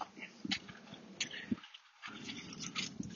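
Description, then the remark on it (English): A dog named Wolfie whimpers softly in a few short, high whines scattered over a few seconds, faint against a quiet, hissy outdoor background with no talking. “I'm Wolfie the dog.”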